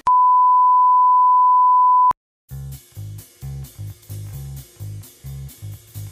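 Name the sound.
electronic beep tone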